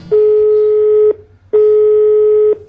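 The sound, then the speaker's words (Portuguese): A telephone ringback tone sounds twice as a call is placed to a 12-year-old frevo dancer in Recife, each steady buzzing tone lasting about a second with a short gap between, loud and clear with no voices. “que tem 12 anos e conversou com a gente pelo telefone.”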